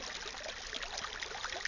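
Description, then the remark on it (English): A very small stream in Denmark, running into the ocean near the coast, trickles and burbles steadily around a person kneeling in it, a soft continuous wash of gurgling sound with no voices present. “Uh, and in spite of the fact that I'm on the coasts, you might be able to hear a stream in the background.”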